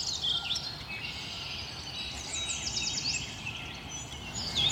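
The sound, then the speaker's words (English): A dense chorus of zebra finches and Bengalese finches chatters and sings nonstop, high-pitched twittering notes overlapping at a steady, moderate loudness with no voices present. “Special thanks to Stephanie White and Yoko Yazaki Sugiyama for the zebra and Bengalese finch audio clips”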